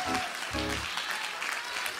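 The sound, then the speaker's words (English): A crowd claps steadily, a dense wash of many hands, while voices call out over it in two brief bursts of shouting near the start, clapping in praise of God on the first day of the year. “Come on, can you just clap those hands and open that mouth if you believe God's getting ready to do something?”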